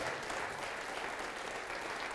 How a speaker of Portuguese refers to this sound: Isso, vamos aplaudir mais ao nome de Jesus.